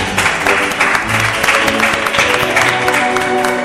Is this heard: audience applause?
yes